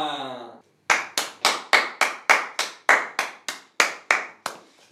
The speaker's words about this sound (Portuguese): depois uma salva de palmas. Era mesmo só isso.